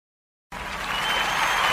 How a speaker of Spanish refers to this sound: Esto con aplauso y de todo, con aplauso.